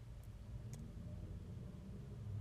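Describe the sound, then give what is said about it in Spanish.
A steady, low engine rumble fills the interior of a moving car at night, a constant muffled drone with a couple of faint clicks early on and no voices. “Mientras estoy dentro del carro,”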